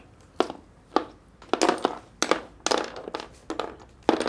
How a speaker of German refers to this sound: Du musst doch die Figur nicht so durch die Gegend werfen.